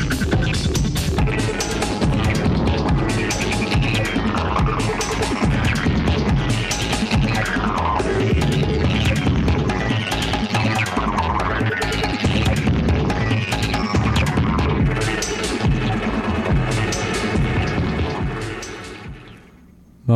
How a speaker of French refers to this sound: Mais c'est un projet qui se donne un peu dans la dans la trance rave